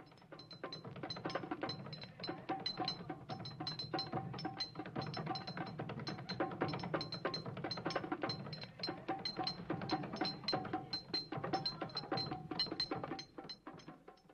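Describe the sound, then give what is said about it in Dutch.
A group of boys in a basement drum steadily on crates, benches and a cola bottle, a dense, clattering rhythm of low thuds mixed with bright ringing taps, continuous and fairly loud for the whole stretch with no talking. “Ik ben naar binnen gegaan en ik vond er een stelletje jongens die op kisten, banken en een colaflesje drumden.”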